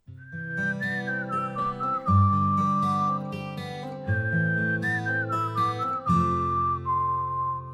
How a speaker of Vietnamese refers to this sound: là để khởi đầu chương trình chủ động Hà Nội sáng ngày hôm nay, chúng ta sẽ cùng đến với ờ, một bài ca trước khi đến với những thông tin đầu tiên.